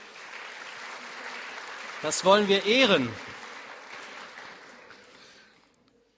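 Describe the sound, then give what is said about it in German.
A steady wash of audience applause for people who have served runs through the whole stretch and slowly fades out at the end, with a man speaking briefly over it partway through. “Ein Applaus für diese Menschen”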